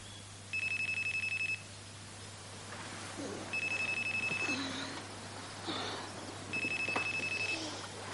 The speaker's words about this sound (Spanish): Al día siguiente, Paloma despierta al escuchar el teléfono.